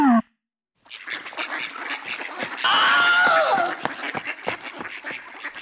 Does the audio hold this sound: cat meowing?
no